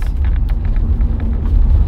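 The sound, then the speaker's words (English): A car's engine rumbles steadily from inside the cabin, with heavy low-end road noise and small irregular knocks and rattles suggesting an uneven, bumpy surface. “It's just, it's all over the place on the road. I think you can probably hear it through the podcast.”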